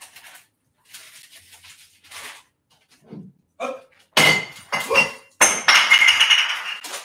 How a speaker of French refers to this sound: Pas cassé. Je sais pas, si vous, je sais pas si vous avez entendu tomber la bouteille de Poulco, mais elle est pas cassée. Putain, j'ai vu la bouteille de Poulco tomber comme ça.